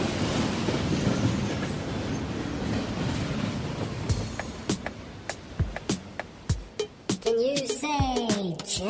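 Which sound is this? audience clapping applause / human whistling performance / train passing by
train passing by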